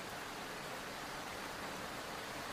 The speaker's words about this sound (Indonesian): Sekarang di luar itu lagi hujan banget. Uh, Aneh banget ada hujan terus di musim kemarau kayak gini.